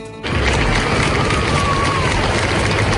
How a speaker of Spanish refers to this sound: Y este es el sonido de la pitada eh, que le hicieron a Rajoy un 12 de octubre.